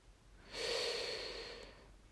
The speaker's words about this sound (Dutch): En sprekend over ademhaling. Adem maar eens even heel diep in.